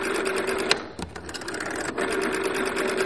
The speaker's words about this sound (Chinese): 嗯，这个电话它不能往往外面拨，但是可以让大家体验现在已经再也看不到的转盘式电话。来，可以听听看它那个原始的声音。